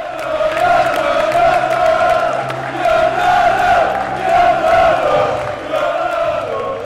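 A large stadium crowd of football supporters sings and chants in unison at the NSC versus De Graafschap match in the Dutch Keuken Kampioen Divisie, a loud sustained roar of many voices with rising and falling waves of cheering throughout.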